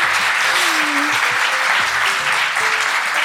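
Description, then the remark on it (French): A live crowd at the end of an evening show claps steadily, a dense, continuous wash of applause for several seconds, with faint voices and cheers mixed underneath. “Mettez-nous, euh, mettez-nous comme, applaudissez-nous, mais mettez-nous quand même 5 étoiles hein, sur Apple Podcast.”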